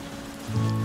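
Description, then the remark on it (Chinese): Steady rain patters down on a traditional market in Yilan in a continuous wash, joined halfway through by a low, constant hum that swells slightly louder; no voices can be heard. “在雨声陪伴的市场里，依旧可以看见和听见为生活努力的街坊市民热情的招待和叫卖。”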